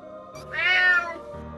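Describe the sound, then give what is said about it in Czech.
A single drawn-out meow from a cat lying on a pile of hay at a goat shed on a farm, rising and then falling in pitch, loud and clear with no talking, lasting about a second. “Když jsem šla ke kozímu chlévu, všimla jsem si, že tam na hromádce sena leží mecka –”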